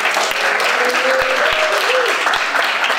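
An audience claps steadily throughout, a dense, continuous wash of applause with a faint cheer or voice rising briefly above it.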